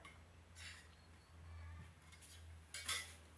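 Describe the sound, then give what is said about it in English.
Someone takes a sip of lemon water, with two short, bright clinking or slurping bursts from the glass over a steady low hum. No one talks. “I'm gonna take a sip of my water,”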